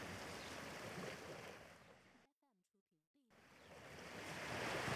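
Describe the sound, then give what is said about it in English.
Steady, broad wash of ocean surf rolling in at a beach, cut off briefly in the middle while a voice speaks over silence, then returning and swelling louder toward the end. “We're having fun at the beach.”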